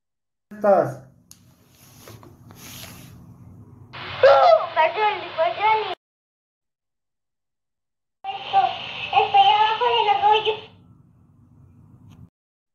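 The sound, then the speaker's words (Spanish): A young girl cries in two long, wavering wailing bursts separated by a short pause, while another small child's voice sounds faintly in the background. “Eh, se escucha una niña llorando y al fondo se escucha otra pequeña.”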